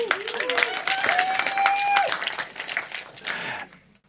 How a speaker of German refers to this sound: Tosender Applaus.